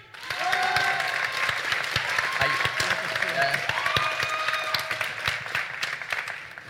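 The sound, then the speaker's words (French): A crowd claps steadily and loudly for several seconds, making noise for a project in a decibel-meter vote, with whoops and rising shouts and whistles mixed in throughout the applause. “D'accord Donc, pour le projet Ambly, faites du bruit”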